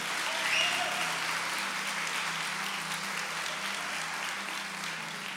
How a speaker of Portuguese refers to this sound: Você pode aplaudir a Jesus, já estou encerrando.